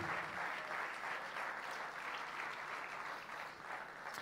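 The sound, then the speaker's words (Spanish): A large crowd at a church congress applauds steadily in praise to the Lord, a dense, sustained wash of clapping at a constant loudness with no voices standing out. “Fuerte ese aplauso de alabanza al Señor.”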